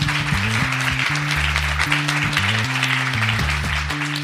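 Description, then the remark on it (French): Steady, dense audience applause fills the whole stretch, a continuous crackle of many hands clapping, with a low, stepping musical bass line playing underneath. “On peut l'applaudir parce que c'est pas un exercice facile.”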